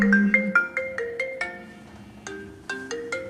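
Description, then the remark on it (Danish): A phone ringtone for an incoming call plays a quick, bright electronic melody of short repeated notes, clear, with no voices over it. “Svaret får jeg, da Kirsten ringer.”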